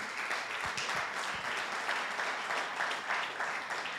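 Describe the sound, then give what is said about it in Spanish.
A crowd applauds steadily for about four seconds, an applause for those who like football, many hands clapping in a dense, even wash of sound at moderate loudness, with no voices standing out. “Un aplauso para usted. Para los que les gusta el fútbol.”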